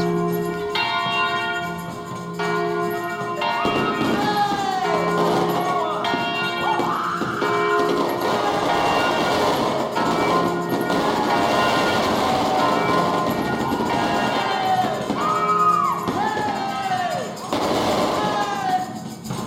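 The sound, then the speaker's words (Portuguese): Church bells ring continuously early in the morning on Holy Saturday (Sábado de Aleluia), with overlapping, lingering tones, fairly loud and steady throughout, while a murmur of voices and other crowd noise mixes in beneath them. “Bem cedo de manhã, Vidigal ficava atento às salvas de foguetes e ao badalar dos sinos.”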